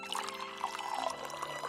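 Water pours steadily into a small cup, offered as a drink to a visitor in a shop, for a couple of seconds, a bright splashing trickle with a faintly rising tone as the cup fills. No one speaks.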